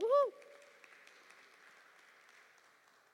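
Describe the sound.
An audience applauds, a steady, moderate wash of many hands clapping that carries on evenly for a few seconds, opening with a brief loud voiced call.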